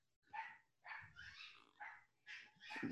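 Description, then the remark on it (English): A chihuahua in a house barks and yelps in quick, high-pitched bursts, about five or six in a row, sounding muffled and distant from three rooms away, with no talking. “I apologize for, for the dogs barking three rooms away.”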